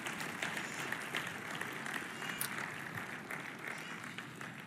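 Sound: audience clapping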